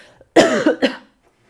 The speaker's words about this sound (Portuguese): Ai, vou tossir.